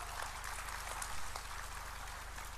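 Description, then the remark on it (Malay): A crowd claps steadily throughout for a Yang Amat Berhormat at a panel session, a dense wash of many hands, with a low electrical hum running underneath and no one speaking. “Kita beri tepukan kepada yang amat berhormat.”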